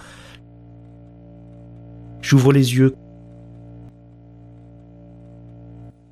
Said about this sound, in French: Les bruits bas des néons de la salle de réveil assaillent mes tympans.